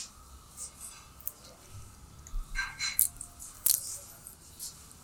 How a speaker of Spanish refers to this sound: lo que vamos a hacer es limpiarnos el, paladar y alcoholizar nuestra boca para que el siguiente trago no sea tan abrumante y, tan potente el choque de alcohol. Entonces vamos a dar un sorbo pequeño, lo pasamos por la boca y pasamos.